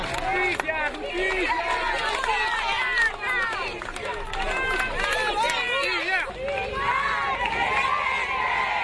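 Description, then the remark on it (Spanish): A large crowd shouts and chants for justice together, many overlapping voices rising and falling in loud, dense, sustained waves of street protest in Buenos Aires, Argentina, during the funeral of prosecutor Alberto Nisman. “Gritos de justicia en las calles de Buenos Aires durante el funeral del fiscal Nisman.”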